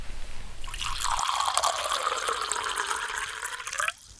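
Water is poured into a glass to drink in one steady stream lasting about three seconds, its gurgling tone shifting as the vessel fills, then it stops abruptly.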